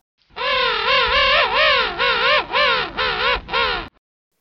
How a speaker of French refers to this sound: Je juste dire que dans une colonie de manchots, le bruit, c'est 95 décibels, c'est le bruit d'une tondeuse à plein régime. Voilà, et c'est permanent.